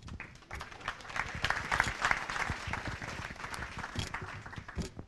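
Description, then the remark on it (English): A conference crowd at Scale applauds steadily for about five seconds, welcoming SurveyMonkey CEO Zander Lurie. It is a dense wash of many hands clapping at even loudness, with a few sharper claps standing out and no voices on top. “Big round of applause.”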